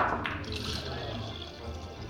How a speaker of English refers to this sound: As the bartender pours me a beer, I spot another guy, lingering in the corner, on his own, staring off into space.